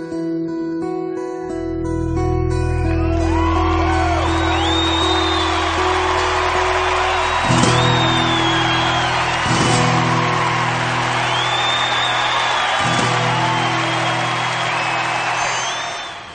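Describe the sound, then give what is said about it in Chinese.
A final sustained chord of a 2004 live song performance gives way to loud, continuous concert crowd applause and cheering that keeps going without letup, with whoops and whistles rising above the clapping. “最后这一段根本停不下来的掌声，一定要听完才是整首歌曲的一个完整性的体现。”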